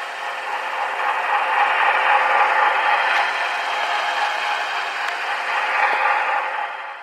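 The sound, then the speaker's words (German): A steady, dense mechanical drone of a ferry engine recorded underwater, continuous and fairly loud throughout, with a faint rattling texture and a few brief clicks, no voices. “Eine Fähre hört sich dort zum Beispiel so an.”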